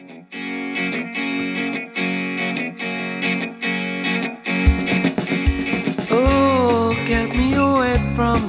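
A pop song opens with steady, repeated chord strums, then a fuller band with drums and bass kicks in and a sung vocal line enters, loud and close throughout.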